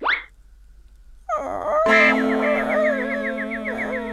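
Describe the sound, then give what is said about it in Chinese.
A dog lying by the doorway gives a short rising yelp, then a drawn-out wavering whine and growl that holds steady and fairly loud for a few seconds, with no talking. “耶，奇怪，怎么有条狗躺在这里睡懒觉？”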